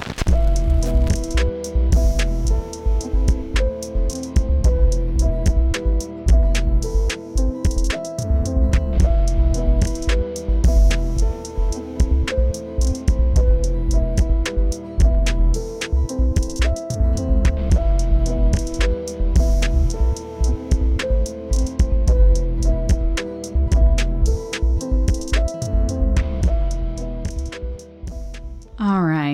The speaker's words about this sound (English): How about we uh roll that intro?